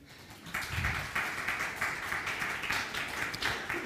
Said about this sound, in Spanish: Un aplauso